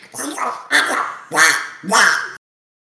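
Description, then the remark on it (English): A man does a raspy, squawking Donald Duck voice impersonation in four quick, loud bursts of garbled gibberish, each about half a second, then it cuts off abruptly into silence. “Yeah, the fact that I broke out a Donald Duck impersonation that I haven't done since I was in high school to get a laugh.”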